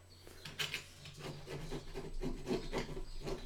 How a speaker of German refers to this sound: Holz mit dem Cuttermesser bearbeitet. Ich mach Wachs ab.